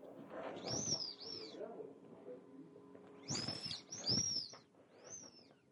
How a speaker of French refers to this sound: Ça, c'est mon floppy. Une bouée gonflable avec une tête de chien. Ça faisait ce son-là quand on appuyait sur le coup. Bien flop.